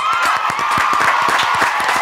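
A crowd claps steadily, many hands making dense, rapid, overlapping claps throughout, with a faint background murmur of cheering voices and a high tonal whistle-like hum running beneath.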